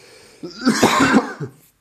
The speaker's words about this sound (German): Also, jetzt so. haben wir schon mal etwas gut gemacht, wir äh, haben also, gleichzeitig gehustet.